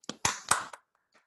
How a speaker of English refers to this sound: Congratulations to the Lakers. To get a round of applause